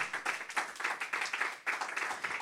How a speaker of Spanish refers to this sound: Alguien le da un aplauso.